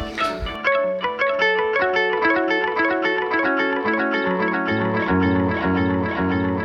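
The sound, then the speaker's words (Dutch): An effects pedal, with its tap tempo held down, loops a short melodic phrase over and over, bright echoing notes repeating in a steady rhythm at an even, moderate volume, with a brief thump at the start and no one talking. “En wat ehm, handig is bij dit pedaal, je kan, als je de tap tempo ingedrukt houdt, dan, gaat eh, dan herhaalt hij het gewoon zo lang als je dat oh.”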